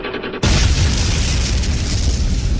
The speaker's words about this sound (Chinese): 一九六四年，中国第一颗原子弹爆炸成功